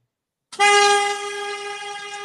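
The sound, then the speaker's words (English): A car horn sounds one long, steady honk that starts abruptly and holds loud until the end, with nothing else audible around it. “Um, I don't know why they honked.”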